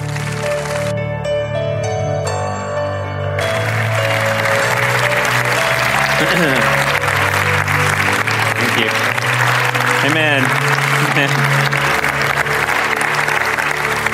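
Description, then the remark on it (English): A large crowd claps and cheers steadily for about fourteen seconds to welcome a pastor coming up to speak, the applause loud and sustained over warm instrumental music playing in the background. “Let's give a warm welcome to Pastor Jeff as he comes to share.”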